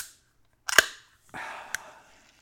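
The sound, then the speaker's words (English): A can of Hamm's beer is cracked open with a sharp metallic pop, followed by a brief fizzing hiss and a second small snap, with no talking. “This is actually a can of Hamm's beer.”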